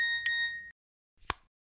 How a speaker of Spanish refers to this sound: No alcanza a quitarse su saco, que recibe un nuevo mensaje en su celular.